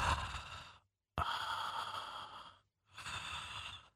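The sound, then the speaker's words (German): A voice imitates the heavy, muffled breathing of Michael Myers behind his mask: three slow, raspy breaths in a row, fairly loud, with brief silent gaps between them and no talking. “wo Michael Myers hinter dieser Maske atmet”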